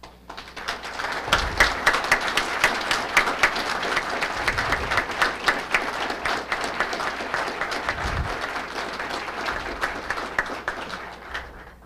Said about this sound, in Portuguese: Peço que se levantem, por favor, para receberem os aplausos desta plateia e dos acadêmicos.